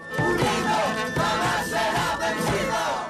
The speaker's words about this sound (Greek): Μέλη συλλογικότητων έχουν συγκεντρωθεί έξω από το Μητόρκο το Δικαστήριο Αθηνών με αφορμή την δίκη του Δημήτρη Λιγνάδη, φωνάζοντα συνθήματα και τραγουδώντα για όλα τα θύματα τα οποία έχουν υποστεί κακοποιητικέ συμπεριφορέ.